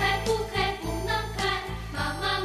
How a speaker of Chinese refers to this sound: 听到我们的背景音乐，这首小兔子乖乖的儿歌，相信不仅小朋友不陌生，很多大朋友一定也是耳熟能详。